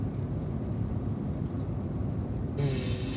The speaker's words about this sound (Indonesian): aku baru sadar itu deket AC mobil jadi suaranya sangat terbaik lebih keras suara AC mobil daripada suaraku